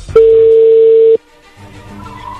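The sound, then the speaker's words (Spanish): A single steady telephone ringing tone sounds loudly for about a second, a flat mid-pitched electronic beep that cuts off abruptly, followed by quiet low background hum. “Bueno, mejor ya vamos a llamarle a Jessica y a ver qué pasa contigo.”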